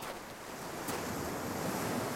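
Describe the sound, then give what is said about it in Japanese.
Steady ocean surf washes and breaks against a seashore, a broad continuous roar with some wind buffeting the microphone, moderately loud, with no voices. “今海にいる”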